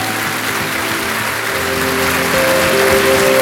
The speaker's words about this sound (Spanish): ¿Cuántos dicen amén a eso? Dar un aplauso fuerte al Señor.